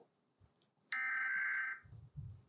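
A single loud electronic alarm tone, the USA's alarm played from a YouTube video of different countries' alarms, holds steady for nearly a second, then cuts off, leaving a few low muffled thumps. No one speaks.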